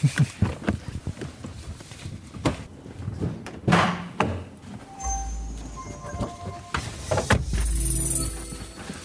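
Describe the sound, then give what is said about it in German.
The front left door of a car, by the driver's seat, is pulled shut with a solid thump, surrounded by rustling and shuffling movement, followed by a low hum and a second muffled knock. “Man hört es, wir sind vorne angekommen, Tür zu.”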